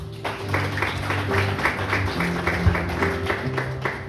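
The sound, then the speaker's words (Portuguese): An audience claps in applause to God in a steady, even rhythm, the sharp claps repeating roughly every quarter second, over sustained low keyboard chords that shift pitch a few times. “Você pode dar uma salva de palmas a Deus?”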